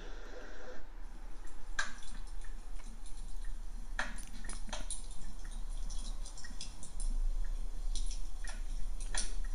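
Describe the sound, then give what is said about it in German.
A recorded babbling brook sound played as a relaxation tone by a device trickles steadily, with a constant watery hiss broken by scattered bright splashes and drips. No voices are present. “Da haben wir so ein Plätschern von einem Bach.”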